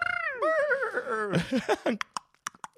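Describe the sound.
A police officer imitates a galloping horse with his mouth: a wavering, whinny-like vocal glide followed by a quick run of sharp tongue clicks mimicking galloping hooves, fairly loud.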